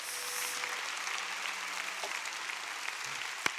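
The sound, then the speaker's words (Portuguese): An audience applauding the Lord during a sermon, a steady dense wash of many hands clapping throughout, with one sharper clap standing out near the end. “Aplauda o Senhor, aplauda o Senhor.”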